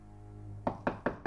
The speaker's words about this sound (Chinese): 一直到九点多才有人敲门。